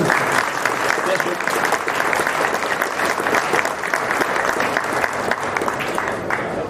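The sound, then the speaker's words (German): An audience applauds steadily for several seconds, a dense, even patter of many hands clapping at a fairly loud, constant level with no pauses. “Ein bisschen Applaus für die mutige.”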